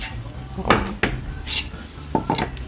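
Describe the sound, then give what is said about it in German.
Dishes and cutlery clatter as a meat dish with some vegetables is served, with several sharp clinks and scrapes of plates and utensils spaced irregularly over a low background hum. “Jetzt, jetzt, kriegen wir hier äh, was Leckeres zu essen.”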